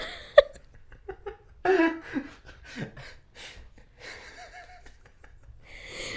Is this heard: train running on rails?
no